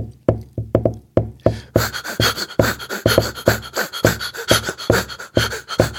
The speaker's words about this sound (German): Der macht ganz viel mit äh, mit Loops. Also der, der äh, klopft meinetwegen einen Rhythmus auf den Tisch. Und dann fängt er an, mit Papier zu rascheln.